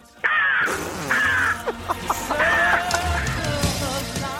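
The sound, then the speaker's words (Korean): A woman in her early thirties imitates a crow during an impressions segment on Park Myung-soo's Radio Show, giving a series of loud, raspy caws into the microphone, with short clicking and throaty sounds between the drawn-out calls. “30대 초반의 여성분이 까마귀 소리 들어보겠습니다.”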